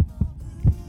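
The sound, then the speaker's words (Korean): A heartbeat sound effect in a promo for a KBS Cool FM evening radio show: deep, muffled low thumps in a lub-dub rhythm, fairly loud, with no one talking. “얼른 8시가 오기를 바라는 제 마음 들리세요?”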